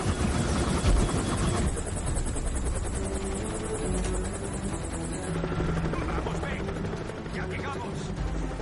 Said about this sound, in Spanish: El helicóptero se aproxima a la superficie nevada levantando una neblina. Dentro, el piloto maniobra mientras el helicóptero tiembla. Inclina el mando. El helicóptero continúa descendiendo. Aterriza junto al alpinista que corre hacia la cabina.